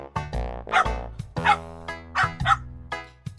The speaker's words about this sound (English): A dog comes by.